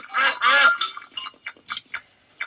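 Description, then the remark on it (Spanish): Ducks quack in a Peppa Pig cartoon, after being promised the rest of a cake: two longer, raspy calls up front, then a scattered run of short, clipped quacks trailing off, with no talking over them. “Tenéis mucha suerte, patos.”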